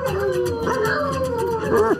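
A dog howls in long, wavering, rising and falling tones that fill the whole two seconds, loud with a steady background hum beneath it.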